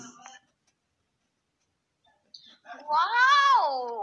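A cat lets out a single drawn-out meow, fairly loud, rising then falling in pitch, after a brief faint sound and a couple of seconds of near silence.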